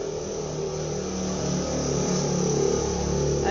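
A steady engine drone from a car going by in front of a house, its pitch sliding slightly as it moves, heard alone at moderate loudness with no talking.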